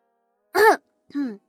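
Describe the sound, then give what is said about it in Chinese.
A short voiced cough in two quick bursts, like a deliberate throat-clearing "ahem": the first louder and rougher, the second lower-pitched and softer, with silence around them and no talking. “陶如霜咳嗽了一声”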